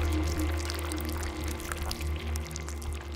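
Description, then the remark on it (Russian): Wet concrete mix pours in a thick, heavy continuous stream onto two bodies for a few seconds, with a steady low rumble and wet splattering underneath, no voices present. “Сделав два укола, он дождался, пока клиенты заснут, а затем дал горняку отмашку и зашагал к выходу под звук бетонного раствора, льющегося на два тела.”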